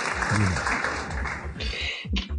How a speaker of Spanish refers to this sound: Aplausos para esa frase que está en Mujer Amorallada.